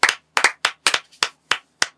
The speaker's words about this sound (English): Round of applause for Marcus Rashford.